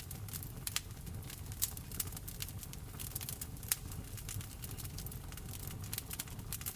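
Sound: fire crackling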